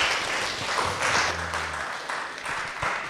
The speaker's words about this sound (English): Thanks for being with us. We can even give a round of applause.